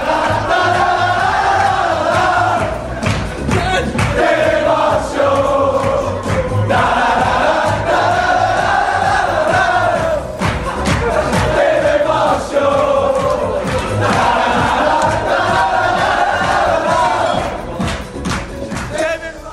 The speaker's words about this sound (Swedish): Den riktiga Will Griggs-ramsan som inte blev för kommersiell.